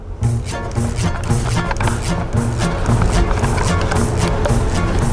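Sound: car driving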